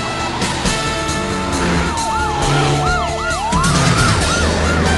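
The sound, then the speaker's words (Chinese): Several sirens from many police cars chasing a fleeing car in Hong Kong wail at once, their rising and falling tones overlapping in a repeating pattern over a loud, steady rumble of traffic and engines. No one speaks. “你跑不掉了，后面好多警车啊！”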